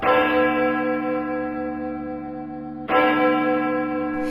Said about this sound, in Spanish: Cuando el verdugo se disponía a ejecutarlos, se oyó un temible sonido desde lo alto del campanario.